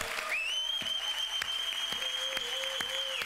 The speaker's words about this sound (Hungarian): És egy nagy tapsot adjuk Jézus Krisztusnak, mert itt van közöttünk.